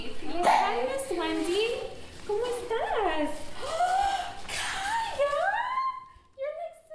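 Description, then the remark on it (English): A Yorkie poo yips and whimpers at a home in Glen Ellyn, a suburb west of Chicago, greeting a visitor: a steady run of high-pitched whines that rise and fall, broken by short barks and ending in a few quick, fading yelps. “She lives with her husband and daughter and a rambunctious Yorkie poo”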